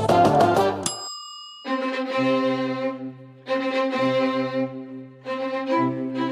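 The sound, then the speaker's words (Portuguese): Wedding music plays on its own: a bright bell-like chime opens, then sustained organ-like chords swell in three slow phrases over a low bass line, fairly loud. It accompanies the wedding of the characters Maria da Paz and Regis in the telenovela A Dona do Pedaço. “Essa música aí de Maria da Paz e Regis se casando, né?”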